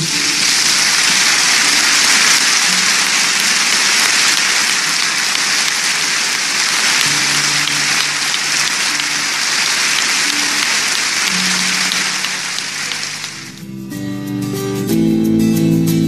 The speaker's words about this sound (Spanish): Y si me permiten, querido hermano, no sé si estoy pecando o no, podemos dar un fuerte aplauso a la memoria